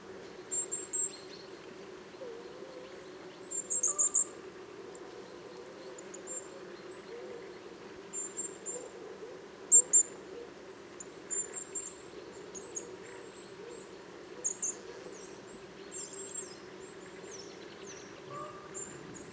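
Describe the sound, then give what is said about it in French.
A redwing thrush sings its autumn song, short high twittering phrases repeating every couple of seconds over the steady low rumble of an airplane, with no voices. “Voilà, j'ai eu même le droit au chant d'une grive Movis.”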